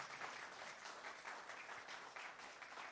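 Steady applause from a crowd fills the whole stretch, a dense wash of many hands clapping at once at a fairly even level, with no voices standing out.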